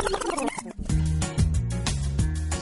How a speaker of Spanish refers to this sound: Espérate un segundito que la busco. Espérate. Le hago aquí un backspin